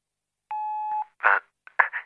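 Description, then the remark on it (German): A single steady electronic beep lasting about half a second, clear, the time signal of a telephone speaking clock reached by dialing a number, followed by a few short, muffled voice-like bursts. “Ähm, beim nächsten Ton ist es 16 Uhr 10 Minuten und 3, 33 Sekunden.”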